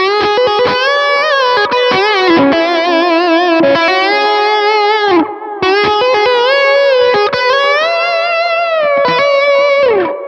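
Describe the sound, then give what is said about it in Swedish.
A distorted electric guitar played through an amp modelled with a Celestion speaker impulse response (IR) plays sustained, bending notes and short chopped strums, loud and steady throughout, with a brief gap midway and no one talking. “Den, den, den, eh, köpte jag en IR e på Celestion.”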